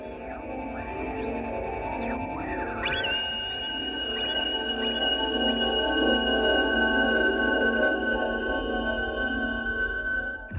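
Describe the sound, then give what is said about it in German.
Strange electronic beeping tones from an album intro, first gliding up and down in pitch, then holding steady and high over a dense, droning low rumble, continuous and fairly loud for the whole stretch. “und auch das Intro mit diesem komischen Geräusch, dieses piepende Geräusch, dieses mhm. laute.”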